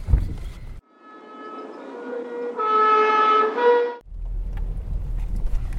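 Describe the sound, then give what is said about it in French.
Low, steady road rumble from inside a moving car driven by the speaker's mother toward the village below, broken in the middle by a few seconds of sustained, harmonic, horn-like tone before the engine and road noise return. No one speaks. “Alors là, on est dans la voiture.”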